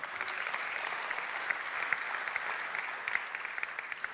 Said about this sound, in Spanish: Ahora sí, dale el aplauso al Señor.